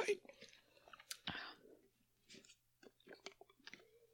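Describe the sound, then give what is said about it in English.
Quiet mouth sounds of someone sipping a drink: soft slurps, swallows and wet lip clicks in an irregular series, with a few breathy bursts in between. “Pause for a drink because suddenly my throat's very dry.”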